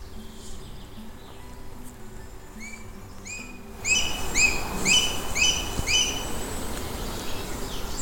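A booted eagle calls in a quick series of high, thin whistled notes, each short and slurred, repeated about a dozen times over a steady hiss that grows louder halfway through.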